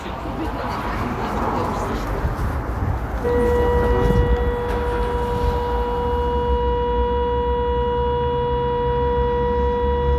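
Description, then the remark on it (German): A steady, sustained air raid siren tone begins a few seconds in and holds unwavering over a continuous rumble of background noise; an air raid alarm in Chernivtsi, Ukraine, during Russian bombing. “befindet sich gerade in Tschernowitz und verbringt dort viel Zeit mit Fremden in Luftschutzbunkern, wenn der Alarm erklingt.”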